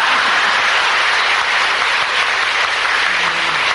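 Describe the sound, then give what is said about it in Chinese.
Steady, dense applause from an audience for several Dharma masters, many hands clapping at once in a continuous hissing wash that holds at an even loudness throughout with no voices. “那么你们现在鼓掌，他们是法师，那我呢也是法师啦。”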